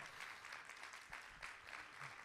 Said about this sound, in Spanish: Vamos a dar un aplauso mejor al Señor.